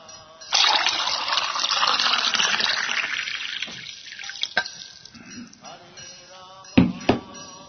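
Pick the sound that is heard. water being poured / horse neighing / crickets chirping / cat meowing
water being poured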